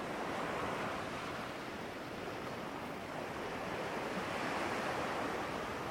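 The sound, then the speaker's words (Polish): A steady, continuous wash of ocean surf, broad and hissing, holding an even level throughout with no distinct breaking waves standing out and no voices present. “Zwróć uwagę na to, jaki kolor mają fale, które Cię opływają.”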